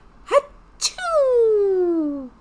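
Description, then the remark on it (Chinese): A voice acting out a sneeze: two short breathy bursts, then a long, loud, drawn-out tone that slides gradually downward in pitch before cutting off. “再举个例子，我们如果打喷嚏，就是。”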